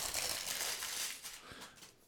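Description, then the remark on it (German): Continuous crinkling and rustling of paper for about two seconds, bright and crackly, with a few sharper crackles near the end as a white paper bag holding a Martini L'aperitivo Fiero drink bottle is handled and opened. “Ja, das war jetzt nicht so unerwartet, weil das hier die ganze Zeit schon auf dem Tisch stand, aber es ist insofern unerwartet, als dass es immer noch in einer weißen Papiertüte ist.”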